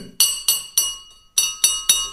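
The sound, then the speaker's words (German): A large teacup with a handle is struck on the top of its rim, opposite the handle, six times in two quick groups of three, each tap giving a bright ringing clink with high overtones that fades quickly; no one speaks. “eine große Teetasse mit einem schönen Henkel dran. So. Und ähm, aus, wenn ich die jetzt oben an den Rand schlage”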